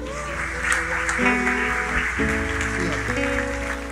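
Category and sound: crowd, audience applauding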